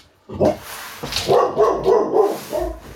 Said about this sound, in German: Mein, mein Hund macht gerade ein bisschen Krawall. Hey! Warte, ich lasse den mal raus.